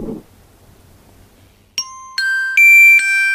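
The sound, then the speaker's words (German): A train station announcement chime: four clear, bell-like tones struck in quick succession, each ringing on and overlapping the next. It sounds loud, after a short, near-silent lead-in. “Das klingt so ungefähr wie Düng, Düng, Düng, Hauptbahnhof.”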